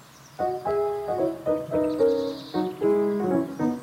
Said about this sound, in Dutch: Oh, heerlijk. vogels.